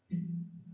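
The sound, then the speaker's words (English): A low-pitched creaking groan from the springs of a microphone's spring mount, one sustained resonant stretch of under a second with a faint metallic edge at the start and no talking. “Okay, those are the springs. My mic is on a on a spring mount, so I can just kind of move it around if I need, but it gets real fucking loud, so I don't do that.”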